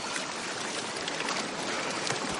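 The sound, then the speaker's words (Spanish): Someone swimming through water to a boat, with a steady, continuous wash of splashing and churning, fairly loud and unbroken throughout, with no voices. “Luego nada hasta el barco y piloto lo ayuda a subir.”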